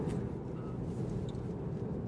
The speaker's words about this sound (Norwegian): Syns som der eh, bilen her kjørte rett mot oss.